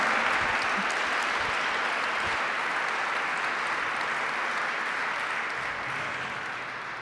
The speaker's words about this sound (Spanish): vamos a recibirlo con un aplauso.